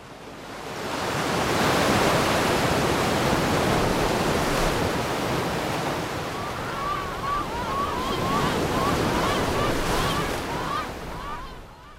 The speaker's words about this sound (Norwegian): Bølger har stått mot land, og sjøfuglene har skreket.